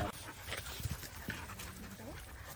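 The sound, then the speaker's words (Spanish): Puppies whimper with thin rising and falling cries and quick breathy panting, fairly soft, in short bursts over a low background hum. “Pero es serio con los cachorros, estos no le hacen nada. No, estos se ve que están súper bien.”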